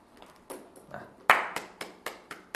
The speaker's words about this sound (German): Klatschen. Alle bejubeln sie, sie stehen im Mittelpunkt und das wollen sie. Sie wollen gepriesen werden von den anderen am Ende das große Klatschen von allen bekommen, zugerufen, wie gut sie sind.